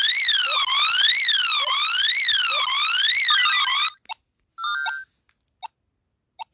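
A loud electronic video game alarm, set off by an alarm button, wails up and down in quick, repeated sweeps for about four seconds, then breaks off into a few short, scattered synthetic blips.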